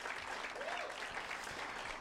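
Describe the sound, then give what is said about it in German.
Steady applause from an audience for a man who did a very good job, a dense wash of many hands clapping at an even level throughout, with faint indistinct voices mixed in. “Ja, geben wir ihm einen Applaus, er hat es wirklich hervorragend gemacht.”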